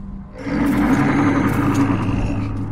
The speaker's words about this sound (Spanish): Por otra parte, en Estados Unidos, miles de personas han sido aterrorizadas por los espeluznantes gritos del demonio de Jersey.